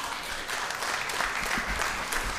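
An audience claps together in response to a question, a dense burst of applause lasting a couple of seconds, steady and fairly loud, with no voices over it.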